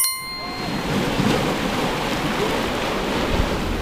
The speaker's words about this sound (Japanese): ちょうどここ岩場になってるので波音がとっても耳に心地いいですね